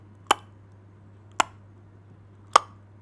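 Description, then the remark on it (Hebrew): A voice imitates an air conditioner dripping water onto metal: three crisp, sharp plinks spaced about a second apart, fairly loud over a faint steady hum. “זה מזגן שמטפטף על איזושהי מתכת שעושה את הצליל הזה של ה”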